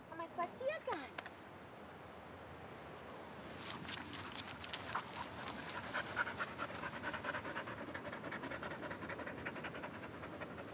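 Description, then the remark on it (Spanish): A dog with its tongue hanging out pants rapidly and steadily during a walk, a rhythmic stream of quick breathy puffs, with soft outdoor background noise and a brief vocal sound at the start. “le cuelga la lengua.”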